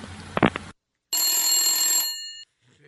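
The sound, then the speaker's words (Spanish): A telephone bell rings in one loud, sustained burst lasting over a second, shrill and metallic, preceded by a brief patch of muffled noise and followed by near silence. “¿Ese teléfono es Rubén?”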